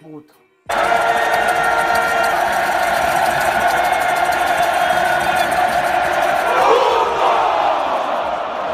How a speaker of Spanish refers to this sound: de esa búsqueda de ingenio y picardía mexicana, surge hace algunos años un grito que al principio generó gracia, después adaptación a la Liga Mexicana, para posteriormente dar paso a lo que pudo haber dejado a México sin un mundial, el famoso